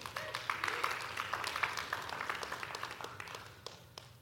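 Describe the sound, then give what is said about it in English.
A church audience bursts into cheering and clapping, a dense crowd of handclaps with raised voices that swells briefly, then thins into scattered claps and fades out over a few seconds. “Yeah, we can cheer for that.”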